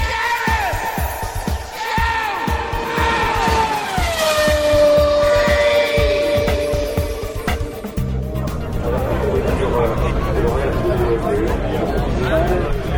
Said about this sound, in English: The unmistakable sound of motorsport fans and the French commentary at Le Mans.